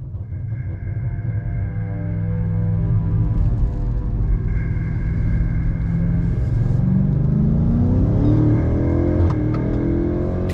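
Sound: car engine driving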